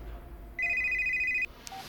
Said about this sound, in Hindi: मतलब उतना तो हमको भी नहीं पता लेकिन अगर हम ठीक सोच रहे हैं तो अभी फोन आएगा ब्रिज देखिए ब्रिजभूषण का फोन आ गया